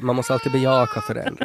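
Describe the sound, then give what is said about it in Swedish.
An infant fusses and cries in the background, partly masked by a person talking clearly in the foreground throughout. “om ni hör här i bakgrunden så är det någon annan som inte heller gillar ja, det.”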